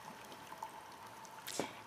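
Soft, steady rush of water from a waterfall in the mountains at night under a starry sky, with a single distinct drip or splash near the end. Quiet and continuous, with no voices.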